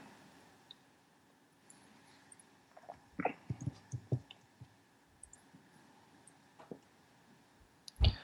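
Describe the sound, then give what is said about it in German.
Computer keyboard typing, a quick irregular burst of clacking keys clustered in the middle, then a few scattered taps and a louder final knock, over a quiet background with no talking. “Ich höre dein Tastaturgeklapper.”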